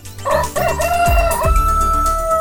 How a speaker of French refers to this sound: Comme le coq nous l'indique, cette semaine on enfile nos bottes